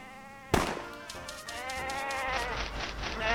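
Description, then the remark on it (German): Sheep bleating in a pasture: a burst starts abruptly and continues as overlapping wavering cries from several animals, fairly loud over a steady background hum, with no talking. “Und mal gucken, ob wir richtig zählen, wie viele Schäfchen hier auf der Weide rumstehen.”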